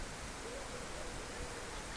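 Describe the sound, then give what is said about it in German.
Steady, soft hiss of rain falling and splashing outdoors in the morning after three days of rain, a continuous even wash of sound heard through a slightly opened window, with no talking. “Ich mache das Fenster ein bisschen auf damit ich das Plätschern des Regens höre.”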